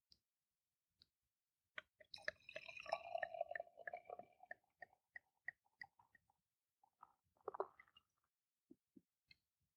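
Beer glugs from a bottle into a relatively large glass matched to the beer, in a gurgling pour lasting about two seconds, its pitch shifting as it fills, followed by scattered clicks, drips and a soft fizzing crackle. No one speaks.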